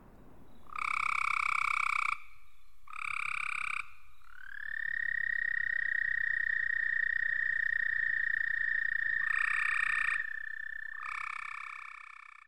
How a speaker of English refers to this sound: Let's start with this recording of an American toad.